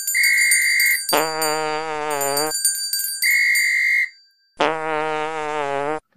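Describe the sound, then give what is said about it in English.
A loud, buzzy fart noise sound effect blares twice, each time following a steady high whistle-like tone, in an alternating whistle-then-fart pattern with no talking. “I'll give you bells and whistles and a fart noise.”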